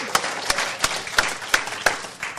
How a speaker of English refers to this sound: So now let's give a big round of applause to all the mamas. Come on, give them a big hand this morning.